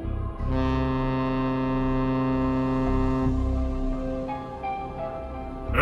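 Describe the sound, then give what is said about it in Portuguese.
A car horn sounds in one long, loud, continuous blast lasting several seconds, a steady droning tone that wavers slightly near the end. No one speaks. “É a buzina de um automóvel.”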